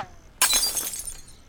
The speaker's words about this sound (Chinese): 居然用弹弓射别人家的玻璃窗户啊！